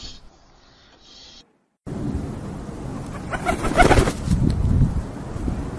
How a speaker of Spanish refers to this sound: el aleteo de decenas de palomas que a través de un agujero en el techo han invadido un local y el edificio abandonado junto al mío, acompaña a su arrullo en esta época de celo primaveral